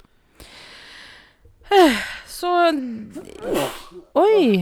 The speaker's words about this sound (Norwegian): prosit.